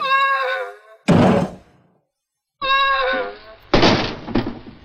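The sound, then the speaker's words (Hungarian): R2-D2 falls flat on its face after a stun shot from a Jawa, twice: each time a high, warbling electronic whine cuts off into a loud, heavy thud. The second fall ends in a double crash. “különbség az az lesz, amikor Artu találkozik a gyavákkal, és az egyik gyavától kap egy bénító lövést, és egyszerűen orra bukik. Itt ö, ennek az orra bukásnak a hangja lesz megváltoztatva.”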